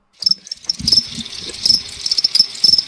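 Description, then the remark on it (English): A cricket chirping sound effect: short, high-pitched bursts repeating steadily over a low, muffled background rumble, moderately loud. “could you pull up the cricket sound?”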